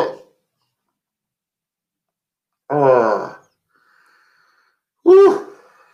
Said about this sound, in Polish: Ale ojej. Nie mogę mówić, bo kichnę.